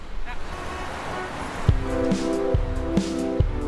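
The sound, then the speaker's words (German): A double-decker city bus in Berlin rumbles by, its engine droning with a steady hum and regular knocking pulses, following a stretch of broad street noise. Voices murmur faintly underneath. “Fehlt nur noch der richtige Bus. Ja, da ist er, ja. Guck mal, der hat sogar oben Doppeldecker.”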